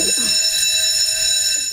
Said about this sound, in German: Eines Morgens klingelt es in der Klingeltal-Bummschule zur ersten Stunde.